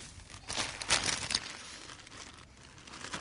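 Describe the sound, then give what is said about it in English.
A plastic bag of ice is opened to take out ice cubes, with a burst of crisp, crinkly rustling for about a second, followed by quieter rustles and a brief final crinkle. No one speaks. “so would you mind grabbing some ice from the bag and putting one cube on the chopping board and one on the saucepan?”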